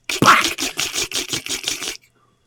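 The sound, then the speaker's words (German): A voice imitates a laser popping against skin during a laser skin treatment: about eight quick, crackly bursts in a steady, even rhythm, fairly loud and hissy, lasting under two seconds before stopping abruptly. “Und dann hörst du immer so, wie der, so deine Haut wegknallt.”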